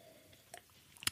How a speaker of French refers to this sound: Alors, mon kiff, je vais boire une gorgée de thé. D'abord, hop,